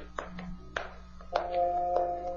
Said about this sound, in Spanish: Pueden ver a los criados del castillo clavar firmemente rejas alrededor de los grandes patios, bajo la mirada atenta del varón de Tífano.